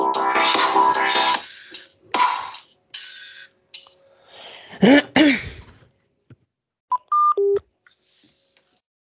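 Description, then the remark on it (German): A baby monitor goes off with a run of buzzy electronic tones and static-like bursts, followed by a couple of short, sharp beeps that fade into quiet. Nobody speaks. “Was war das jetzt? Das war mein Babyfon.”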